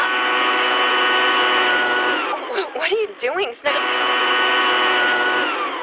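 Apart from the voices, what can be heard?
cordless leaf blower running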